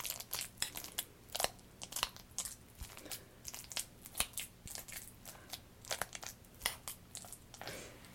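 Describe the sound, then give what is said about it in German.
Someone chewing a mouthful of porridge, with a steady run of moist, crunchy bites and mouth clicks in an irregular rhythm for several seconds, fairly loud and with no talking. “Ein furchtbares Geräusch. Es ist tatsächlich ähm, ein Porridge.”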